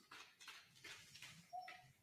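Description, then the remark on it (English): A dog gives a short, thin, high-pitched whine near the end, set among soft scuffling and rustling noises; no one speaks. “Sorry, the dogs are dogs are whining.”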